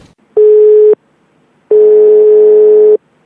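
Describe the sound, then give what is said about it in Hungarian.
A telephone busy signal as a phone call fails to connect: a steady, buzzy electronic tone sounds twice, first a short burst and then a longer one after a brief pause, loud and clear with no voices. “Na, mi az már? Nem fogad a hívás?”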